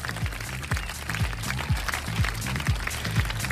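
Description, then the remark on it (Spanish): A burst of crowd applause, dense steady clapping with no voices, runs over a regular thumping low beat that pulses roughly twice a second. “Puros aplausos aquí, ¿eh?”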